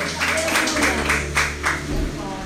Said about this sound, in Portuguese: Aleluia. Você pode aplaudir a Jesus. Você pode glorificar o nome do Senhor.